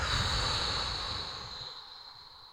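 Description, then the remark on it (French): After being held for two to three seconds, a long, deep breath is exhaled completely as a steady airy hiss, strongest at the start and gradually tapering off over a couple of seconds, with no talking. “J'inspire à fond, je bloque ma respiration.”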